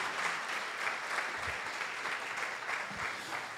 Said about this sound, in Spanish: Dale un aplauso a la palabra de Dios.